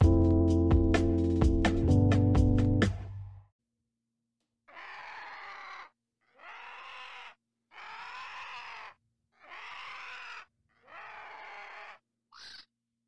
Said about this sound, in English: If you were wondering what that magnificent sound was, that was a vulture. That's right, a vulture, folks.